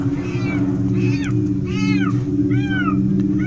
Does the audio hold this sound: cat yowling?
yes